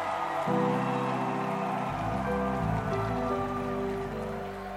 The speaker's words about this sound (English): Now, …. Please, please, …. Are you clapping for …?